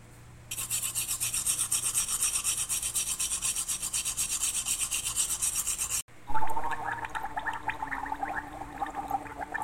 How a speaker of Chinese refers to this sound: 原来是一只小火龙。已经要准备睡觉啦，他已经刷好了牙，漱好口，还洗好脸。